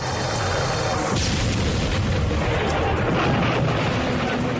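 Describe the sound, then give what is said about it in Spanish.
A relentless barrage of deep, rumbling artillery explosions, booms overlapping into a continuous roar with no gaps, loud and dense throughout; artillery shelling American troops in frozen foxholes in a forest in the Ardennes near the Belgian border, 16 December 1944, 5:30 a.m. “El silencio del bosque se ve interrumpido por una tormenta de explosiones.”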